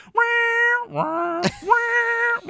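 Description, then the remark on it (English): A voice imitates the siren-like sound effect from the film Kill Bill, three loud, sustained wailing tones in a row, each sliding up at the start and holding steady, with short breaks between them. “because when he first walks into the club and sees Gina, it's sort of like that sound effect from Kill Bill where it's like”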